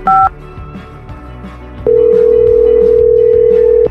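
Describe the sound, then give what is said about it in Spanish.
A single short, loud two-tone keypad beep from a phone being dialed, a quiet pause with faint background, then a steady, mid-pitched line tone that holds to the end. “Ahí está marcando.”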